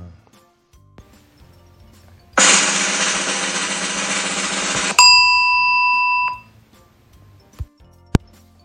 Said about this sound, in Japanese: でもさ、最後のチーンってなんかおかしくないえチーンってそういう音じゃなかったっけドドンとかそういうやつじゃない普通。